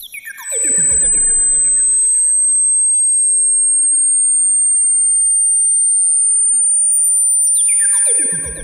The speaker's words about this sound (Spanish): Así que ya lo saben, 15.000 Hz probablemente no podrían ser oídos por personas mayores de 40 años. Así que aquí va y ustedes me dicen, escuchan o no escuchan.